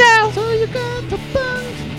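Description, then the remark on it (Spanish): A human voice imitates a cat meowing as the sign-off for Miau Producciones, several drawn-out, pitch-sliding meows in quick succession, fairly loud with no other sounds around. “y esto fue una producción de Miau Producciones. Miau, miau, miau, miau, miau, miau, miau, miau, miau, miau”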